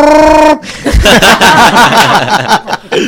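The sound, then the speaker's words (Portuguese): A voice imitates the roar of a hairy, monkey-like creature from a film: a loud, steady horn-like bellow for half a second, then a rough, wavering growl that carries on loudly for nearly three seconds. “Esse pedaço do filme que ele fez esse barulho eu não vi.”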